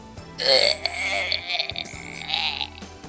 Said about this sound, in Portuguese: Essa piada mereceu o som de tripa de retrocento.